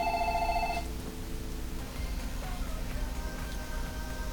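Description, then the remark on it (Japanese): A telephone rings loudly with a bright electronic trill for under a second, then cuts off, leaving a low steady background hum and a few faint tonal traces. “あ電話ですねちょっと待ってくださいね”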